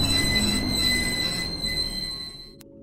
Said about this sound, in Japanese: 急ブレーキの音がかかりました。